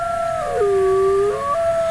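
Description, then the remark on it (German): Several wolves howl together in long, sustained tones, one voice sliding down low and rising again while the others hold steady pitches above it, with no talking. “In Bayern gibt es wieder Wolfsrudel.”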